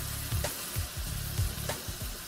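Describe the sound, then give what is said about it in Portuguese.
Shrimp sizzle steadily in corn oil in a frying pan over raised heat, a continuous crackling hiss broken by several soft clunks and scrapes as they are spread around the pan. No one speaks. “A gente distribui bem eles aqui na panela”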